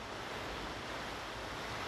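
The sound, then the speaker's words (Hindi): Heavy rain falling outside a house, a steady, dense hiss that stays even throughout with no single drops standing out, fairly soft and with no voices. “भगवान की अनुकंपा से बाहर बहुत बाहर जो होती है मेरे घर के बाहर बहुत अच्छी वर्षा हो रही है और बड़ा आनंद आ रहा है वर्षा को देखते हुए सत्संग करना”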